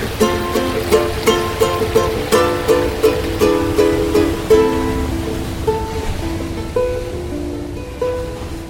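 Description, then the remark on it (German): A steady rushing wash of ocean surf runs throughout, beneath a quick, rhythmic series of bright plucked ukulele notes that gradually thin out toward the end. “Die Ozeane, Bäche, Flüsse, Wasserfälle, die Duschen, Toilettenspülungen, Kaffeemaschinen, die ich im Laufe der letzten Jahre eingefangen hatte.”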